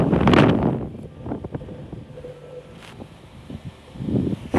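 Gusty wind thumps and roars against the microphone in heavy low rumbling bursts, strongest at the start and again at the end, with quieter outdoor rustle between gusts.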